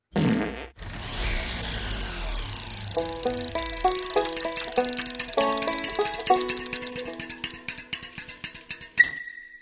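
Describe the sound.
A voice blows a long, wet raspberry imitating a fart, buzzing and sputtering with wobbling, stepping pitch for several seconds, fairly loud, then cutting off abruptly.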